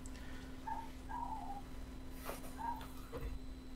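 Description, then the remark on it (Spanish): A puppy lets out several shrill, high-pitched yips in quick, uneven bursts, fairly quiet, over a steady low electrical hum and faint background noise. “Encima se ve que es cachorro y tiene un ladrido súper estridente.”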